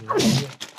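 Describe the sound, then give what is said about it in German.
A single sneeze: a sharp, loud burst of breathy noise with a voiced tone that slides downward, then a brief quieter exhale trailing off. “Ja, Gesundheit.”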